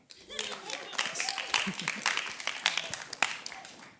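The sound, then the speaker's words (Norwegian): An audience claps together for a volunteer who will read from the Bible, a steady burst of overlapping hand claps, moderately loud, continuing for several seconds with some murmuring voices mixed in. “Gi en klapp til”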